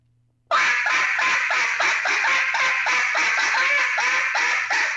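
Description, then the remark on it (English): A duck call blown loud and fast like a cut-down call, a rapid string of about a dozen harsh, raspy quacks in a steady driving rhythm, continuous after a brief silent start. “I mean, you can blow it just like a cut down.”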